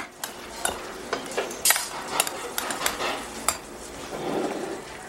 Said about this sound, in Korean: 뜨거운 카레라이스를 숟가락으로 뒤적이자 맵고 자극적인 강황 냄새가 식욕을 돋았다